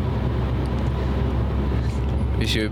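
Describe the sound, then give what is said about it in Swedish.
Steady engine and tyre rumble from a car overtaking a swerving Arla milk tanker truck on the road, loud and continuous, with a brief higher-pitched whine rising near the end. “Vänta, jag måste, jag måste köra om den här rackaren. Han är väldigt wobblig.”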